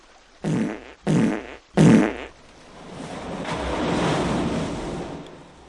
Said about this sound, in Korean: 그러더니 계곡 물속으로 첨벙첨벙 걸어 들어가는 게 아니겠어요? 아니, 이 새아가! 너 지금 뭐 하는 거냐? 그리곤 또 시원하게 방귀를 끼자